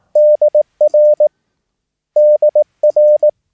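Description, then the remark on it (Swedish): A clear, steady Morse code tone spells out the letters DR, the radio operators' abbreviation for "dear", in crisp dashes and dots, the two-letter sequence sent twice with a pause between. No voices. “Så good evening och så dear är DR.”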